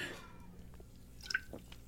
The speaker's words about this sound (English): I think it's time for my sip of seltzer.